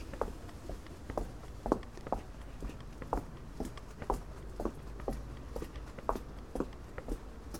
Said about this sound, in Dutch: Dan loop ik snel terug naar de plek in mijn tuin waar ik eh, de potjes met grond al klaar heb staan om ze daarin te zetten.